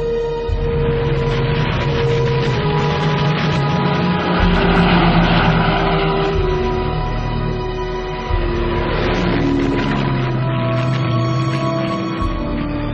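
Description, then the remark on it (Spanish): Powerful military aircraft engines roar steadily for several seconds at an air force exhibition of new aircraft models in May 1938. A dense, loud mechanical drone with rumbling lows and a shifting whine, with no voices present. “Aquí le vemos como comandante en jefe de la Lupape en una exhibición de nuevos modelos de aviones para la inminente guerra.”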